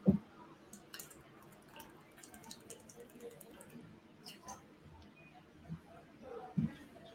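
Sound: drinking water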